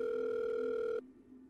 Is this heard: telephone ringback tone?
yes